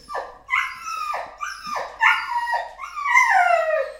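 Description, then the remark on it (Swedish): A hunting dog howls and barks, a run of loud, high-pitched yelping cries that swoop up and down in pitch, ending in a longer drawn-out howl. No one speaks. “Lät han sådär den här igen eller?”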